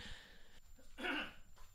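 A single short, fairly sharp cough, with quiet breathing noise before and after and no talking.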